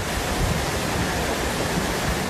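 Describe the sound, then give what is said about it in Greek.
Rushing floodwater pours through a torrent in a steady, loud roar, with deep churning rumble underneath and no pauses or voices. Streams in villages of the Municipality of Agia on the Larissa coast, Greece, have become torrents carrying debris during a storm, sweeping away road surface. “Ρέματα έχουν μετατραπεί σε χυμάρου μεταφέροντα φερταϊκά. Το νερό παρέσυρε ακόμα και το δόστρωμα.”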